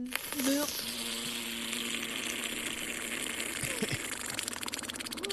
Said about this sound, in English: so over the weekend, a guy took a lava cube. Don't ask where he got it from because I don't have that answer. And he put it into a jar of mayo. What does that sound like?